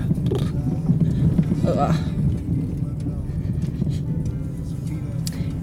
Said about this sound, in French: Je sais pas si vous entendez, mais la voiture est pas mal secouée. Pourtant, c'est un 4x4.